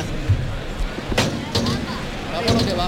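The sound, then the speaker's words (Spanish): A bullring's toril gate swings open and the fifth young bull bursts into the ring at the opening novillada of the Málaga fair, at 9:16: a few sharp, loud bangs and thuds ring out over a steady, noisy arena murmur. “Ahí oímos cómo está abierta la puerta de Toriles para que salte al ruedo el quinto novillo cuando son las 9 y 16 minutos.”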